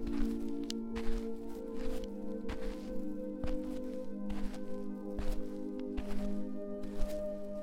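footsteps walking through a

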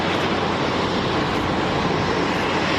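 airplane engine

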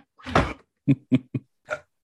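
hiccup

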